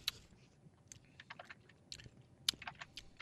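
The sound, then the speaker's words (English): Someone sips unaged moonshine from a glass, leaving a quiet string of wet lip smacks and tongue clicks scattered irregularly over a few seconds, with no talking. “Now take another sip here.”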